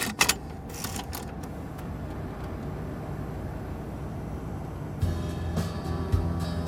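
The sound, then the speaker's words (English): Steady low rumble inside a recently acquired car with an old tape deck as it is driven back, with a few clicks and creaks early on and the road noise growing louder and rougher near the end. No one speaks. “So we're driving back”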